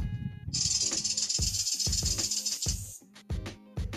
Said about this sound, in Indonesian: ular